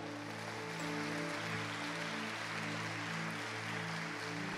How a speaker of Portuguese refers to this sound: Amém? Você está comigo? Então aplauda o Senhor, dá um brado de vitória.